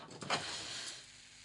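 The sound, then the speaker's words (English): Doom Bar beer fizzing as it's poured from a bottle: a soft, steady hiss with a brief louder gush near the start, then a constant quiet crackle of bubbles, with no voices. “Listen to that fizz, my friends.”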